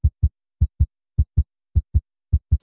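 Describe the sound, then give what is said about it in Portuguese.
A steady heartbeat sound effect: five deep, muffled lub-dub double thumps in an even rhythm, fairly loud, with silence between beats and no voices. “Esse programa chega o coração, olha.”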